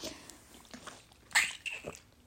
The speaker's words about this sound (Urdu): sorry میں ذرا پانی پی رہی تھی